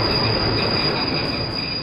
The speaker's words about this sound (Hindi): मैं कुछ कह पाती इससे पहले ट्रेन ने फिर झटका दिया